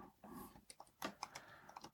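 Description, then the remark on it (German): Quick, irregular clatter of keys on a computer keyboard as someone types notes, a burst of sharp clicks with no one talking. “Ich höre doch schon deine Tastatur.”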